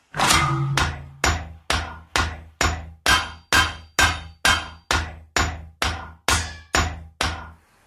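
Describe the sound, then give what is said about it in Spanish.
A djembe, a traditional African percussion hand drum, played by a chief showing its three tones, struck about fifteen times in a steady, even rhythm, each sharp, loud slap ringing briefly before the next, with a deeper, longer first stroke. No voices. “nos enseña los tres tonos que tiene el yembe, que es este instrumento tradicional de percusión en África.”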